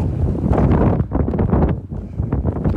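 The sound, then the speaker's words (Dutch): Strong wind buffets the microphone behind a low wall on the Col de l'Iseran mountain pass at 2,770 metres, 4 degrees and bitterly cold, reached by bicycle, in loud, continuous rumbling gusts, with heavy low roar that surges and dips briefly before pushing on again. No voices are heard. “Ik was even achter het muurtje gaan staan, want het waait hier als een mal.”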